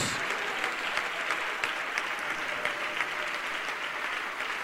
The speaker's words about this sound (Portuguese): Vamos aplaudir mais ao nome do Senhor Jesus.